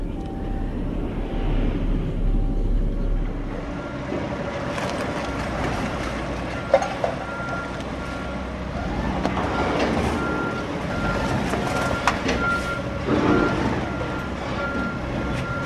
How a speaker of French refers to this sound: Marche arrière. On va se mettre dos au hangar.